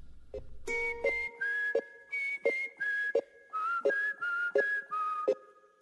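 A bright whistled melody rides over a steady, evenly spaced beat and sustained backing tones, sounding like the opening of an upbeat song played on a Blue Radio music broadcast. Clear and upfront, with no voices.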